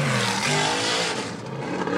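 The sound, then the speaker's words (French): Race car engines rev loudly and continuously, a dense roaring wall of sound with shifting pitch as the cars power along the circuit. “On va vous laisser avec le son des moteurs.”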